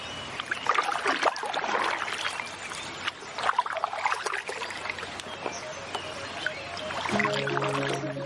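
Steady rushing water of the Aburrá River current with irregular splashes and sloshes as a dog paddles a small canoe nonstop; near the end a low sustained tone enters beneath the water.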